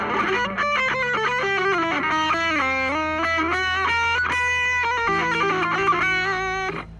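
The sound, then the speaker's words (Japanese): A distorted electric guitar plays a continuous oriental, exotic, Middle Eastern-flavored melodic phrase, notes sliding and bending steadily over a sustained low drone, loud with no talking. “こういうなんかちょっとオリエンタルエキゾチックフレーズとかも織り交ぜつつっていううに私はやってますんでまあこれが合うのはメタルとかでしょうけどね”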